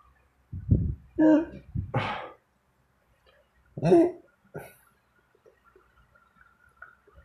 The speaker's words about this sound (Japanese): ちなみに今のは、ゲップって言えんのゲップって、どんく、こう、中で、うっってって、それってゲップじゃないと思う。俺の中で。それは、なんだろう。ゲップじゃないよね。